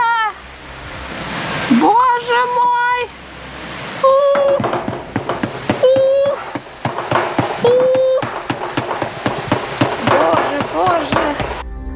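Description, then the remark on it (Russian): A dense, steady whirring rush of countless locust wings from a giant swarm fills the air, peppered with rapid ticking flutters, while brief shouted voices break through now and then. “Гигантские стаи прожорливых насекомых сметают все зеленое и сочное – поле кукурузы насекомые съедают за считанные часы и перелетают на следующие.”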